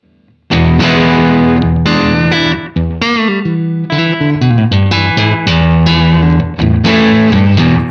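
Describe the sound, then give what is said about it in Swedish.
An electric guitar through a clean Silverbean amp emulation plays a series of loud, ringing chords with sustained notes and brief gaps between strums, with no one talking. “också cleanar upp snyggt tycker ja. jag. Om jag växlar över till silverbean igen.”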